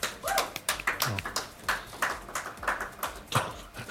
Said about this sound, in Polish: Brawa mogą być teraz dla nich.